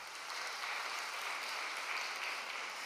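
An audience applauds steadily for about three seconds, a dense, even wash of many hands clapping at a fairly constant loudness, with no one speaking over it.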